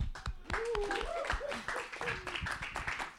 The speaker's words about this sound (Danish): Der står, at nogle gange skal vi bryde ud i jubel. Kan I prøve lige at bryde i jubel? Kan vi finde ud af det? Kan I klappe?